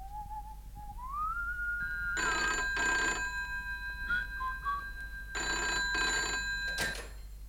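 A telephone rings in two double bursts, each a harsh, clattering bell pair, over a steady high tone that begins with a rising whistle-like sweep, as a call is placed to Paul Cox. No one speaks.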